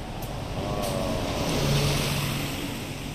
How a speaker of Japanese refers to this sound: 今右から左にね車がはい右から左、まあ、こういう風に最後は大型のバスが行きますよ